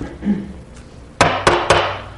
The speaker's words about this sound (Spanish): Tocan la puerta.